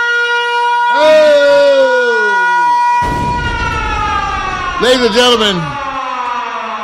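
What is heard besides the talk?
alarm siren sound effect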